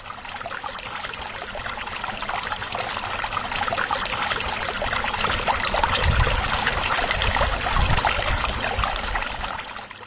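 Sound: water pouring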